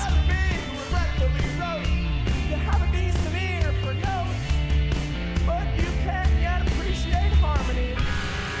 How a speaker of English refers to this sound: No, no, no. The song. The, the point is the song. Listen to the interplay between bass and drums.